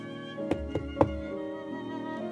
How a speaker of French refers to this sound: Un soir d'hiver, alors qu'il gelait à pierre fendre, on frappa à la porte de la cabane.